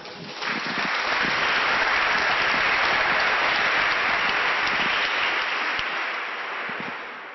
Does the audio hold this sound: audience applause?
yes